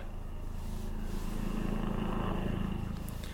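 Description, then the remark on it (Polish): A helicopter drones steadily overhead, a low, pulsing rotor rumble with a faint engine whine that holds at a constant level throughout, with no voices present. “Helikopter leci i mnie zagłuszy.”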